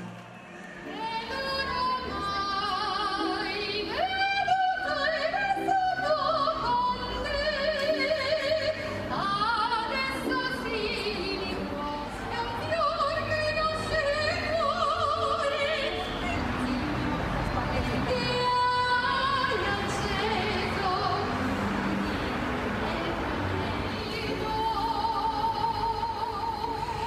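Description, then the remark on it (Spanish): A crowd of Italians in Rome singing together from their balconies, many voices blending into a loud, continuous melody with sustained notes and a murmur of crowd noise throughout. “Comenzamos en Roma, donde los italianos cantaron juntos desde su balcón en un esfuerzo por, ah, por mantener la moral alta en este momento de crisis.”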